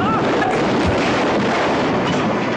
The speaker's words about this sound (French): Ça, c'est une explosion